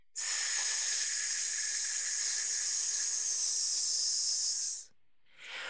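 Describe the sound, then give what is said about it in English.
A long, steady hiss of breath pushed out through the teeth while the abdominal muscles are pulled in during a deep-breathing exercise lasts nearly five seconds, then cuts off, followed by the brief start of another hiss. “Take a deep breath in allowing your abdominal muscles to expand, and then pull them in as you push the air out, making the hissing sound.”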